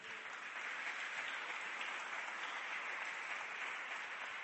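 A church audience applauds for Jesus during a sermon, steadily for several seconds, a dense, even wash of many hands clapping at once with no pauses and no voices on top.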